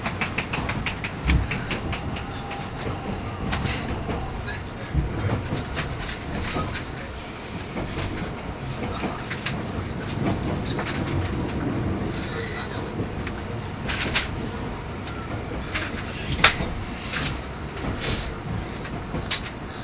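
A 683 series limited express train, the Shirasagi No. 14 running from Toyama to Nagoya, rumbles steadily along its rails as it approaches Maibara station, with a dense low-pitched roar, rattling car noise and scattered sharp clicks and clacks over the joints for the full twenty seconds.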